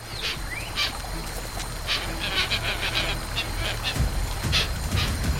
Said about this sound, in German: Es ist der eindeutige und unverwechselbare Ruf des Hoazins, des Zigeunerhuhns, eine Mischung aus Schnarren und Stöhnen. Zu Hause in Panguana hörte sie den Ruf oft.